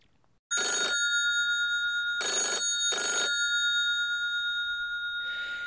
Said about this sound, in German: Der Geist hat es tatsächlich geschafft und im Rathaus steht das Telefon nicht mehr still.